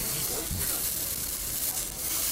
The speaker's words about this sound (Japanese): そしてまずはじゃあ王道のワタミカルビからいきたいと思います焼いてる音聞いてくださいね